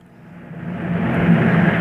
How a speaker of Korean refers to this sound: 버스 한 대가 도착했습니다.